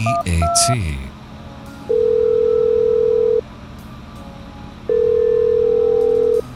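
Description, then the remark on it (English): A quick run of touch-tone keypad beeps as a local number, 555-BEAT, is dialed on a payphone, followed by two long, steady ringback tones separated by a pause, clear. “Now to place a local call on this payphone.”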